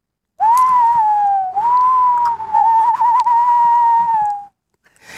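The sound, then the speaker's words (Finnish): A person whistles an imitation of a tawny owl's call: one long, steady, mid-pitched whistled hoot lasting about four seconds, with a slight dip partway and a faint wavering near the end, alone and fairly loud. “Aika usein elokuvissa kuulee tämän lehtopöllön äänen.”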